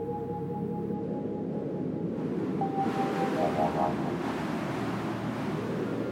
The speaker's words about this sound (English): Yet the real reason that she couldn't sleep had been the howling of the wind outside.